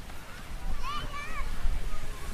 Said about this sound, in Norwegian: Nå vi, går vi gjennom Nupenparken med alle fontenene, og som vanlig er det barn som leker i eh, vannet.